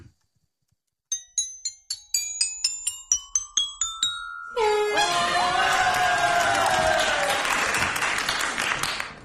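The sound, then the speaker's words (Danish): A quick run of bright, ringing chime notes plays, then a loud crowd erupts into sustained cheering, whooping and applause that carries on to the end. “han får det fortjent hyldest efter at vise, hvad han kan.”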